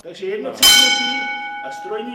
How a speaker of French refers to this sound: Pour prévenir de la descente ou de la remontée d'un chariot à l'époque, il fallait actionner la cloche.